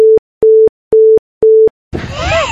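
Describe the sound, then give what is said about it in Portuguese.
Four loud, steady beeps of the same mid pitch sound in an even rhythm, each lasting about a quarter second, and a voice starts talking right after the last one. “Que ele comenta que a gente deve ter batido todos os recordes de bips.”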